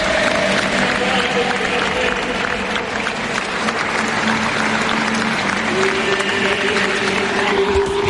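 Dense, sustained applause from a large crowd fills the whole stretch at steady volume, a continuous wash of clapping with some murmuring voices and faint tonal hums underneath, outdoors in the Plaza Santa Ana by the Cathedral of Santa Ana in Las Palmas, as a coffin is carried out of the church.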